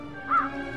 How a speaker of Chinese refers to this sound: 一只乌鸦从远处飞来，落到她手中的魔杖上。